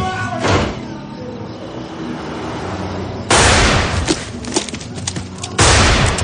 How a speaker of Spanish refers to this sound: Alguien le dispara desde la ventanilla y él se agacha tras una furgoneta disparando con su arma.